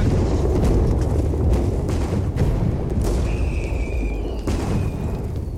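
Lit gunpowder barrels on boats sent by Montcalm toward the English explode too early because of badly set fuses. The blasts come in a rolling series of heavy booms over a constant deep roar, with several sharp cracks and a brief high whistle partway through.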